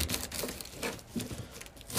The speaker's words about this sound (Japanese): えー、っと今から白菜を切っていきますね